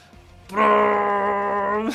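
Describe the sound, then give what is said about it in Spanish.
A single loud, steady horn-like blast, a sci-fi laser ray firing effect, holding one deep droning pitch for about a second and a half before cutting off abruptly. “Me encanta el efecto de sonido cuando dispara el rayo láser.”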